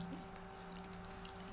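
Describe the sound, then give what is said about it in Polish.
Water drains from a pool in a steady, unbroken rush with a faint wet squishing texture and a low mechanical hum underneath, holding an even loudness throughout with no voices. “Pewnie wypuszcza wodę.”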